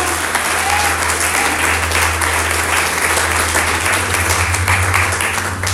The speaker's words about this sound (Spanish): ¿Alguien puede aplaudir en esta tarde a Jesucristo?